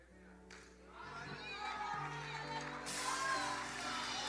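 An audience breaks into applause that swells steadily and grows louder partway through, a dense wash of clapping from many people with voices and sustained musical tones underneath.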